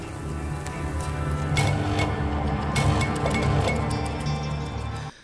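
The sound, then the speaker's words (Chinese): Meat sizzles steadily on a barbecue grill, a dense crackling hiss dotted with sharp pops and ticks over a low rumble, holding at an even loudness for about five seconds before cutting off. “尽管就是一段声音的片段，但是听到那个烤肉那滋滋滋那个声音哈，还是会有点馋人。”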